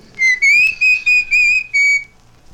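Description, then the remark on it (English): A bird gives a series of clear, high whistled calls, about five short bright phrases in quick succession with slight pitch rises, loud, with no voices. “No, I think it's birds repeating.”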